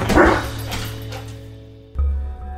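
A dog lets out a loud bark at the start, then a quieter second bark near the end, with a low steady hum running underneath.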